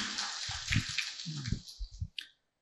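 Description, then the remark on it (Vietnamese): A burst of audience applause at a Buddhist Tết (Lunar New Year) gathering, given in gratitude after New Year teachings and wishes: a dense patter of many hands clapping at steady loudness for about two seconds before cutting off abruptly. “Đề nghị đại chúng chúng ta hãy dành bằng một tràng pháo tay nữa để chúng con tri ân công đức”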